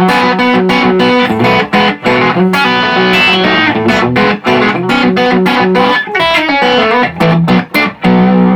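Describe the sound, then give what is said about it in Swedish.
A loud, effects-laden electric guitar riff played in seventh position: pull-offs on the B string with the open E string ringing along, then on the G string with the B string ringing, under a steady run of sharp, rhythmic picked notes, with no one speaking. “sjunde läget och liksom spelar en pull-off-figur på B-strängen och sen använder lös E-sträng som får klinga lite ihop och sen samma Precis.”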